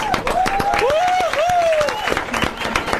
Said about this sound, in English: we give, give her another applause.